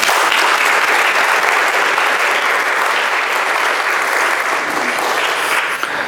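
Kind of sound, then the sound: crowd, audience applause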